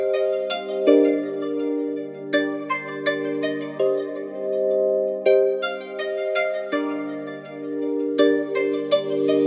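A rap track plays at steady volume, its intro built on a sustained, bright synth melody punctuated by crisp, regularly spaced beat hits, with no vocals yet.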